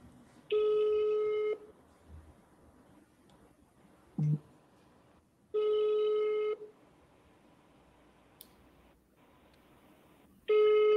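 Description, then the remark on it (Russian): A phone call on speakerphone ringing out unanswered as the called person does not pick up: three steady ringback tones, each about a second long and spaced roughly five seconds apart, with faint hiss between them. “Так, ну вот видите, Мария не берет трубку”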